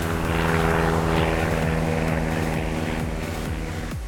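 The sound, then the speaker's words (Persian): A loud aircraft engine drones steadily with a deep propeller hum and layered harmonic tones, holding strong for a few seconds without any voices. “خیلی خفن این همکاری نه پورشه ماشین رو طراحی کنه و بوینگ هم دو تا از اون موتورهای جت خوشگلش بچسبونه بهش که بتونه از زمین بلند شه چی میشه”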